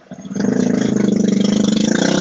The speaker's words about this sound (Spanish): Ah, ¿Estás bien de la barriga, cabrón, o es una moto? Eh, fue una moto. Eh, oh, quizás fue el abuelo, pero hasta donde yo sé fue una moto.